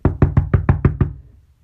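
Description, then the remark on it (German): Seven quick, heavy knocks on a wooden gate, evenly spaced in a steady rhythm, each a dull low thud with a sharp attack, then fading into quiet. A rider who has jumped off his horse is pounding on the gate. “Ein Reiter kämpft mit seinem Ross, springt ab und pocht ans Tor und lärmt.”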